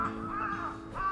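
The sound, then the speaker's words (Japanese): A crow caws twice outdoors in a park on a quiet Monday morning, harsh drawn-out calls over a steady low background hum, with no talking. “なんか今日すごく週明けで、まあ、今カラスが鳴いてますね。”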